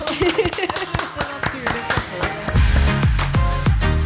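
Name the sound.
clapping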